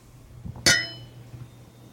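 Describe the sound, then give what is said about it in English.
A single bright glassy clink rings out sharply as two glasses of old wine are touched together in a toast on a Friday, with a shimmering tone that lingers briefly over a low background hum. “And here's to Friday. Yeah, cheers.”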